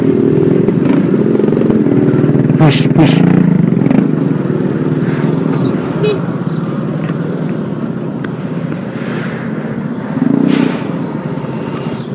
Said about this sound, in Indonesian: masih rame dan ya ada motor berisik lagi